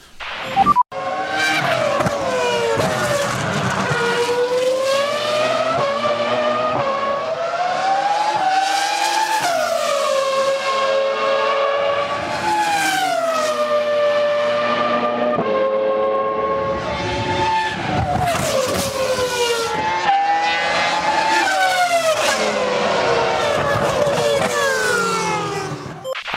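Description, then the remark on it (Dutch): The V10 engine of a 2005 R25 Formula One car screams loudly and continuously during a demonstration run, its pitch rising and falling sharply through gear changes as the car passes by, with no talking over it. “de demonstratie van Alonso in zijn R25? Is R25, ja. ja. Van 2005. Van 2005. Ja, het laatste met de V10”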